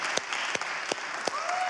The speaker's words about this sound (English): Hey, let's give the worship team a round of applause. They do such a great job leading us in worship.